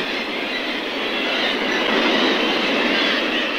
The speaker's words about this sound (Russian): С незапамятных времен острова облюбовали птицы. Их здесь более десятка тысяч. Такие скопления пернатых в Арктике называют птичьими базарами. Не последнюю роль, надо думать, в происхождении названия – сыграл тот шум, который вы сейчас слышите.